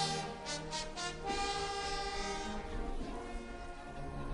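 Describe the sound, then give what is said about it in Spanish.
A brass band accompanying the procession of Señor de Cristo Rey plays a slow processional march, opening with soft, sustained chords that hold steady and swell gently, with no voices over the music. “Una marcha que empieza suave.”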